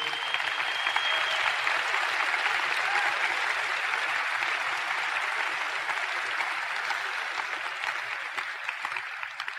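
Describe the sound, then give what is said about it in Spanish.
Sustained audience applause for the hosts who invited the speakers, a dense wash of many hands clapping steadily at an even level for nearly ten seconds, with no speech over it. “Yo quisiera primeramente, como un paréntesis, pedir un, fuerte aplauso a sus diamantes que tuvieron la confianza de invitarnos y hacernos...”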